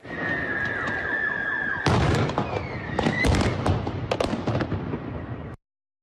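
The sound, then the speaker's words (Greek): Sharp explosive bangs go off one after another amid a noisy outdoor crowd during a residents' demonstration against the Russian army in Enerhodar, Ukraine, near the Zaporizhzhia nuclear plant. A high whistling tone sounds early on, and a sudden burst of louder, denser blasts comes midway before it cuts off. “Παράλληλα, στην περιοχή του Ενερχοντάρ, κοντά στο πυρηνικό εργοστάσιο τη Απορίζια, σημειώνονται εκρήξει κατά τη διάρκεια διαδήλωση των κατοίκων κατά του ρωσικού στρατού.”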